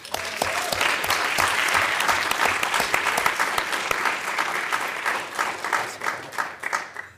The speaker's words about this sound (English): Thank you, and also especially thank you to everyone who came out here tonight. Give yourself a round of applause.